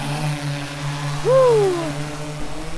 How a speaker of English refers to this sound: That buzzing sound is a scientific drone launching 60 meters into the air. The drone is about two feet wide. It looks like a big black flying crab.